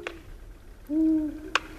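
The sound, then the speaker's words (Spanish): A long-eared owl's sharp wing clap snaps once, just after a low, steady hoot; a fainter clap sounds at the very start, against a quiet background. The owl is flying in circles over a forest clearing at night, clapping every three wingbeats. “Y cada tres aleteos, no me preguntéis cómo lo saben, dan una palmada.”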